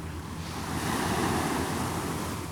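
Steady rush of surf washing onto a beach, a broad continuous roar that swells slightly in the middle, with some wind noise buffeting the microphone. No voices.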